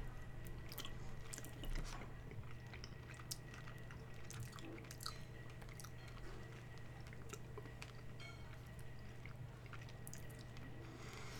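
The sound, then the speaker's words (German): Someone chews snacks for about eleven seconds, a steady stream of soft, moist crunches and clicks at an even, unhurried pace, with nobody speaking and a low, constant hum underneath. “Ich habe schon runtergeschluckt, ich sag trotzdem nichts.”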